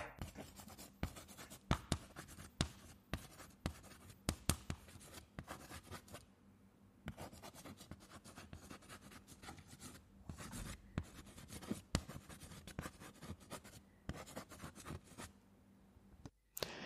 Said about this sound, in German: Das ist so ein bisschen ASMR-mäßig, ne? Ja. Wenn Leute das geil finden. Also ich äh, hab's immer ja. gehasst. Ja, dann würde ich jetzt sagen, Kreide an der Tafel.